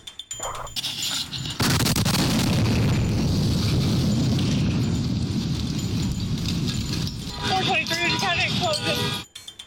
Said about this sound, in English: Even bombings.